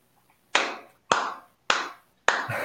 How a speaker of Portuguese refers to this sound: Isso aí é. Para quem está ouvindo no podcast, são, são palmas.